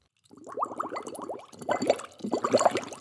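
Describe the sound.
Bubbles gurgle through a straw in a glass of water, a rapid burbling run that pauses briefly and then resumes in two louder, denser bursts, with no talking.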